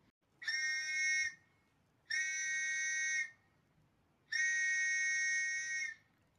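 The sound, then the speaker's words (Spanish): Three loud, shrill blasts from a toy whistle blown by a child, each about a second long with short pauses between, the last one held longest. No voices accompany them. “Devolvió el silbato al niño, y éste pudo ya tocarlo con tanto brío como los demás.”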